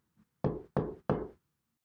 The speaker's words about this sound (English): Emerald went to Muse's door and knocked on it. There was no reply. Emerald tried again. But there was still no answer.